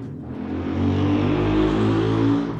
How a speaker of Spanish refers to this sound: acaba de pasar una motocicleta a toda velocidad, no sé si la escucharon y me hizo perder mi tren de pensamiento, pero ahorita lo agarro.